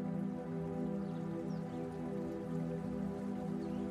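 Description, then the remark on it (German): A small brook babbles steadily far away on a still night, winding along a street, a continuous trickling and splashing of water that holds an even level throughout, with no voices present. “Das Plätschern eines kleinen Bächleins bricht die nächtliche Ruhe.”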